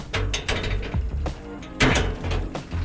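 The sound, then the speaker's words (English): The busted front door of Snow Ice Shavery, a Taiwanese shaved ice shop near McKinley and 2nd Streets in downtown Phoenix, is wrestled open: a run of loud mechanical rattles and clunks, sharp clicks throughout and one heavier scraping jolt midway, with no one speaking. “Sorry, our front door is busted.”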